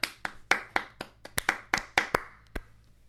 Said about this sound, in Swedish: Jag tycker, ja, en applåd för henne.